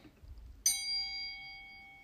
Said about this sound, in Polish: Witamy się dzwoneczkiem.